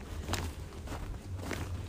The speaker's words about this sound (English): That's walking through fresh snow, 20 centimetres last night.